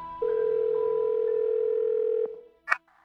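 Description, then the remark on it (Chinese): A steady, unbroken telephone receiver tone hums at a mid pitch for about two seconds, then cuts off with a click, followed by one short, sharp electronic blip, after the handset is picked up to hang it up properly and the redial button is pressed by accident. “一阵细微的声音从电话里传来，我望向电话，发现好像并没有挂好，于是便走了过去，拿起听筒，准备把它重新挂上的时候，可手指不小心却点到了重播键上，我愣住了。”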